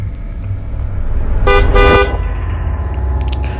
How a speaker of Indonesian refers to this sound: Suara klakson mobil tiba-tiba terdengar memanggil dari luar rumah.